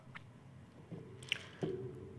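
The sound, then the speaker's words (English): Quiet mouth noises of someone swallowing pills: a soft wet squish, a brief click and a gulp, with no talking. “Um about to take some pills right now.”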